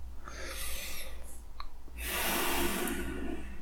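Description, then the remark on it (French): A slow, deep breath: a soft airy inhale, a brief pause, then a longer, louder hissing exhale, with no talking. “On peut prendre une grande respiration comme moi.”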